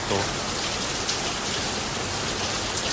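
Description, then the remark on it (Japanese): Heavy rain pours steadily on a hot, humid summer day of about 33 degrees, a dense, continuous hiss of drops drumming on surfaces, loud throughout with no pauses. “暑くて気温が33度ぐらいあったんですよねこれ雨雨の音これ大丈夫そうこれ雨の音に妨害されて音入ってないんじゃない”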